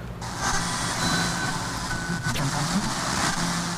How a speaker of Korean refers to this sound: 으이그 이놈의 라디오 하, 긴 잡히지도 않는 라디오를 듣겠다고 튼 내가 잘못이지